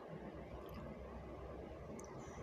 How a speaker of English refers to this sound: I'm so sorry for chewing y'all.